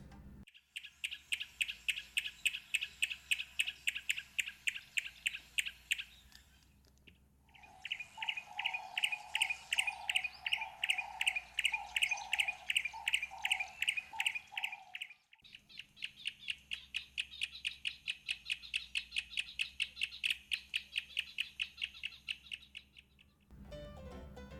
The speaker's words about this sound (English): The bird for today is a yellow breasted apalis.